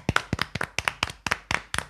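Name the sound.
hands clapping applause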